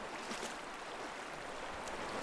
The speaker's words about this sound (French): Alors là, donc, on se situe dans les, dans les gorges de la Méouge, sur la partie amont des gorges. On est à, euh, pas très loin de, la berge, on est dans l'eau. C'est plutôt des zones d'eau vive. Ça court un petit peu, il y a de, la pente.